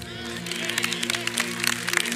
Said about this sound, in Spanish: Yo pensé que le iba a dar más fuerte ese aplauso.